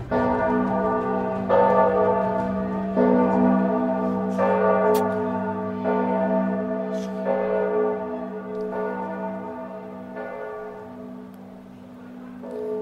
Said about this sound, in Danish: Kan du høre klokkerne ringe?